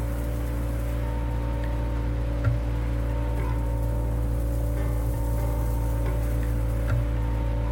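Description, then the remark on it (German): A data sonification of the climate development of Northern Europe from 1950 onward plays as a steady, layered electronic drone of sustained low tones, with faint ticks and clicks scattered across it at an even loudness. No one speaks. “die haben Klimadaten sonifiziert”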